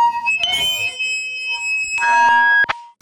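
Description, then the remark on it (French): A loud, piercing guitar amplifier feedback howl, caused by a guitarist turning toward his amp while playing, rings out as steady high-pitched tones, punctuated by a few sharp bursts of noise, swelling near the end before cutting off abruptly. “Un jour, alors qu'il jouait avec sa guitare, il s'est tourné vers son ampli, ce qui a provoqué un énorme larsen.”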